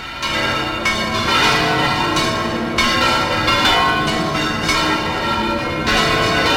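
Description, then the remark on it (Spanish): Church bells of Granada peal loudly and continuously for the Virgen de las Angustias, several bells overlapping in a dense, ringing clangor with repeated strikes and long resonant tails, no voices present. “campanas de Granada en su Virgen de las Angustias de ayer.”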